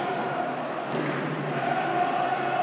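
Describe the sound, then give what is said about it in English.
A football crowd gives a half-hearted, sarcastic round of applause about 15 minutes into the match, after a poor through ball from Lee Gregory, a steady wash of clapping and murmuring voices that holds at an even, moderate loudness throughout. “Sarcastic applause behind us.”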